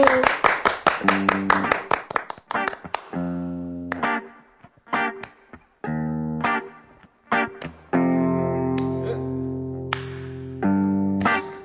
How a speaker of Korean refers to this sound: 네, 자, 박수!